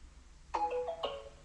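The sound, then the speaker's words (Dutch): A two-tone doorbell chime rings out clearly, a bright first note followed half a second later by a lower second note, each ringing briefly before fading, with no voices. “Geconditioneerd zijn dat als de bel gaat dat je opspringt.”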